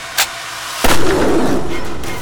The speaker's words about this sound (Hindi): पर तहसीलदार जो पीछे एक पेड़ के ऊपर पोजीशन लेकर बैठा था रुका नहीं और उसने अपनी एक पुरानी सी बंदूक से शेरनी पर गोली चलाई